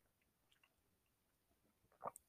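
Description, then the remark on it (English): A quiet sip of water: near silence with a few faint mouth clicks, then a short wet slurp and a sharp click at the very end. “yes, I'm taking a sip of water. I'm thirsty.”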